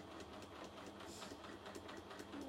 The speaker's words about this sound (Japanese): でねジグザグミシンをかけてるもう一方の端っこはあの布の耳を活用してね、うん、結構長いなこれ糸足りるかな